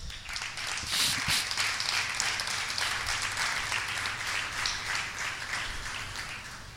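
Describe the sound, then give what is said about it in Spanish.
A crowd applauds steadily for several seconds, a dense wash of many hands clapping at once, fairly loud and sustained throughout with a few scattered voices beneath. The applause is given to the King at a preacher's call during a sermon. “¿Alguien le puede dar un aplauso al rey?”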